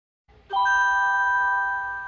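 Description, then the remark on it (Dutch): A single bright electronic chime rings out cleanly after a short pause as a Pixel Watch smartwatch is placed on its charger, its pure bell-like tones sustaining and slowly fading, heard alone with no talking. “We hoorden dan ook een heel nieuw apparaat, de Pixel Watch die op een oplader wordt gelegd.”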